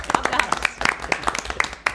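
Hands clap in a quick, uneven patter for about two seconds, like a small group applauding close by, sharp claps overlapping at a steady moderate volume.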